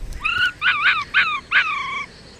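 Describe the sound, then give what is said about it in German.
A lone baby fox in a forest cries in four high, whining wails, the first and last drawn out and the middle two shorter and wavering, with no voices present. “Und wieso brüllst du?”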